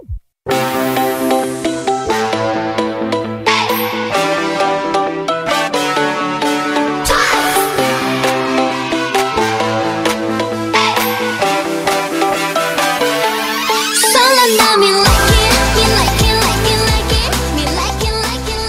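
A loud, upbeat K-pop track plays on the radio show Double Date on TBS eFM 101.3, with bright layered synths, steady beat and dense harmonies, shifting to a fuller, brighter section near the end. No one talks over it.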